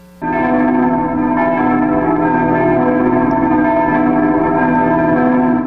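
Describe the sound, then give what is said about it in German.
Church bells ring out loudly and continuously, several bells overlapping into a dense, sustained peal with rich ringing overtones and no voices; all the bells ring during the Gloria at early Mass on Maundy Thursday. “Gründonnerstag beim Gloria in der Frühmesse begannen am Gründonnerstag alle Glocken zu läuten und flogen dann nach Rom zur Beichte.”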